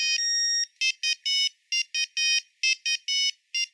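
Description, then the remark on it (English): A shrill, simple monophonic mobile phone ringtone, a basic approximation of a song, plays a bouncy melody of bright electronic beeps, one long tone followed by quick short notes in a repeating rhythm, loud, with no voices. “The first ringtones were monophonic, meaning that they were very simple approximations of the song they were meant to represent.”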